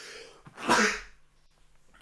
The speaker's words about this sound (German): Boah, jetzt muss ich niesen.